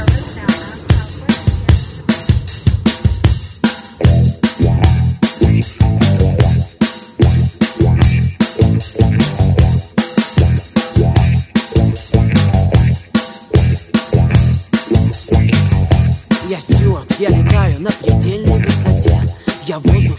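A Belarusian pop song plays loud, with a steady, punchy beat driving a full mix of bass, synths and a sung melody throughout.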